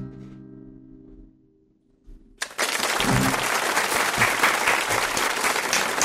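Audience applause breaks out suddenly after a live music performance ends on a fading low tone, a dense, steady roar of many hands clapping that stays loud and sustained until the end.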